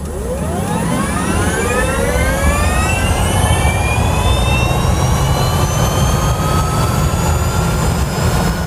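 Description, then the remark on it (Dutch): An electric car accelerates with a loud, steady whine that climbs smoothly in pitch for several seconds over a broad rumble of road and motor noise, with no voices. “Ja, dat klinkt nog eens even heel anders dan een benzineslurper die hard optrekt.”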